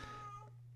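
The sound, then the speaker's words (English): A single short cat meow, faint, with a steady low hum underneath and no talking. “I don't know if you can hear my cat oh, meowing. she wants out.”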